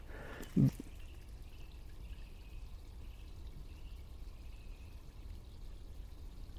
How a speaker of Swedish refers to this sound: Och eh, snön smälter och man hör den rinna nerför backkrönet här. Det är blött och gyttjigt där jag går.